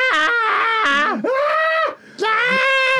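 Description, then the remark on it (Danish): A voice imitates excited fan screaming, letting out three loud, high-pitched sustained shrieks with brief gaps between them, clear with no other sounds. “At, at, at, at skrige det der, af ting, man ikke burde skrige over.”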